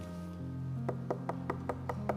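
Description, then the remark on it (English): A quick, steady series of about seven knocks, evenly spaced and fairly crisp, rapping over a sustained, low organ-like tone that hums throughout. “That's worry knocking on your door.”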